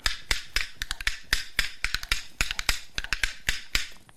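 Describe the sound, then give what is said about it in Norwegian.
Homemade clappers of ordinary wood, cut and burnt to fit the fingers, click out a quick, rhythmic pattern of sharp, bright clacks, some landing in fast doubled pairs, with no voices over them. “Men eh, så, så skar vi til og brente og fikk det til å passe fint i fingrene. Og så klikket vi, sant?”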